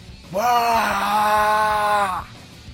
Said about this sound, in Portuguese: E você consegue apenas escutar alguns gritos dentro da catedral. Você não consegue ver exatamente o que o Ilie fez, mas os gritos daquela criatura ressoam por dentro da catedral e pelas frestas que ali saíam. O encapuzado ou um ser lá dentro gritava.